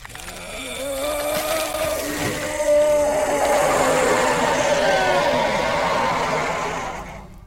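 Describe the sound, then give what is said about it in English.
A ferocious werewolf howl from a woman fully transformed into a werewolf with thick brown fur and goat-like hind legs: one long, loud, sustained cry with a rough, wavering tone that bends in pitch, holding for several seconds before fading out. No voices accompany it. “Melanie stands, fully transformed into a werewolf. She lets out a ferocious howl.”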